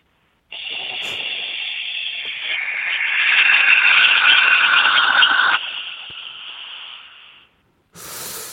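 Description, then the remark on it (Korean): A steady, loud roar from a Boeing 747 jet engine with a high whine running through it, swelling in the middle then easing off before cutting out, followed by a brief burst of noise at the end. “보잉사의 747 엔진 들어보겠습니다.”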